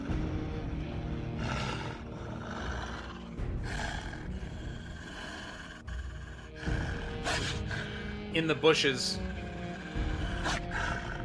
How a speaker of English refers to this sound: you hear um, a low growling not coming from him. Coming from the right.